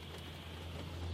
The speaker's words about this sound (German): Ich stehe am Straßenrand, sitze in meinem Auto und höre, wie der Regen auf das Auto und auf die Autoscheiben fällt.